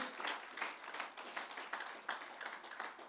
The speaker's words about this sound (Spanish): De un aplauso si así lo desea a la presencia del Señor, a nuestro Dios.